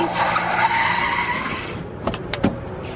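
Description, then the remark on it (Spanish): A taxi's tires squeal in a long, loud skid that trails off after about two seconds, followed by a few sharp knocks and clunks. “Taxi.”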